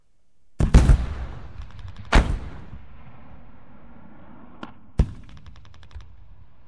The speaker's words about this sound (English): Guns fire all day and night. They sound like waves breaking on the rocks back home. We're used to it now.